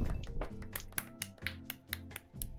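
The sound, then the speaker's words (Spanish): Spontaneous applause: sharp handclaps land in a steady rhythm, about two to four per second, fairly loud over a low sustained tonal hum, with no voices. “Aplauso, aplauso espontáneo, sí. Aplauso.”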